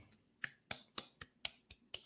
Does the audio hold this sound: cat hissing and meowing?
no